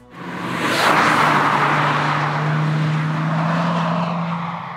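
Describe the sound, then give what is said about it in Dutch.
The turbocharged engine of a fifth-generation Volkswagen Golf GTI runs loud, a steady low drone beneath a broad whooshing rush that swells in the first second and then holds evenly. No one speaks. “ja, het klonk in ieder geval als een turbo, maar ja, ik weet niet.”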